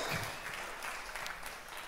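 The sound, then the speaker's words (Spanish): A crowd claps steadily after a prayer, giving applause to the Lord God Almighty. It is a dense wash of many hands with no clear individual beats, holding an even level throughout the short stretch without any voices on top. “Le doy un aplauso, un aplauso fuerte al Señor Dios Todopoderoso.”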